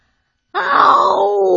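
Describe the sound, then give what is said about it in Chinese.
A human voice imitates a monster's terrifying howl in a children's story being read aloud: after a moment of silence, one loud, sustained, throaty wail bursts out and holds steady, its pitch sagging slightly as it drags on. “怪兽哈利生气了，他深吸一口气，使出浑身力气，发出一声最最可怕的嚎叫。”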